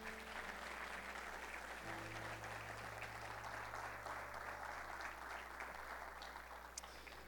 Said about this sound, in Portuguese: Amém. Amém. Pode aplaudir Jesus.